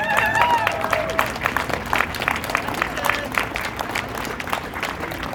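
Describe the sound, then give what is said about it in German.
An audience applauds a musician after her performance, clapping steadily for several seconds in a dense patter of many hands at once, with a few brief voices or cheers rising over it near the start. “Bitte nochmals einen großen Applaus für unsere Musikerin.”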